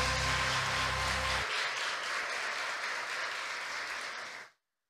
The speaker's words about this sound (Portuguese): Aplauda ao Senhor.